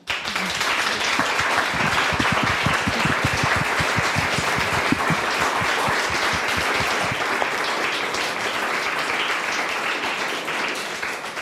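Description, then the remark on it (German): A dense wash of audience applause, many hands clapping steadily and loudly for about eleven seconds, with a few sharper claps standing out early on before it evens into a sustained roar; applause at the end of a live recording of the Deutschlandfunk Kultur show Lakonisch Elegant, for an editor in the front row. “Und es gibt noch einen Applaus”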